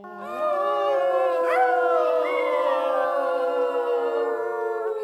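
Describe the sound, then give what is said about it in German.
Wolves in a forest howl together in a sustained, overlapping chorus, long mournful tones holding steady with a few voices sliding upward partway through, loud and continuous for the whole stretch with no talking. “Après quelques jours, les loups sont venus l'écouter, tous les soirs.”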